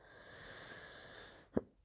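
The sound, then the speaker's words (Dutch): A single short, soft cough or throat-clearing burst near the end, after a stretch of quiet hiss. “ja, sorry. Voor af en toe even mijn kuchjes en mijn dingetjes.”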